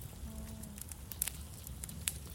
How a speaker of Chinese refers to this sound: 阿公住在乡下，阿温整卡哦，想要取暖就生火，啊，就用这个壁炉。